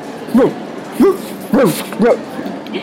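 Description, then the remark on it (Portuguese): A dog boarding a flight at an airline gate barks four times in a steady rhythm, each short, clear bark rising and falling in pitch, moderately loud, with quiet background hum between them. “Entendo, claro. Todos os cachorros sempre preferem as janelas.”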